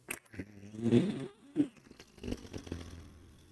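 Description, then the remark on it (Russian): A voice imitates a fart with a few low, buzzy, sputtering bursts, the loudest near the start and a short sharp one after, trailing off into softer rumbling. Fairly loud. “Это э, мотоциклисты что-то, блядь, опять, сука, блядь, прямоток, я ненавижу, блядь.”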